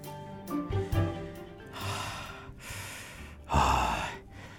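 Heavy, labored breathing of an old man: a few voiced, raspy gasps followed by three long, breathy inhales and exhales, the last one loudest, with no talking.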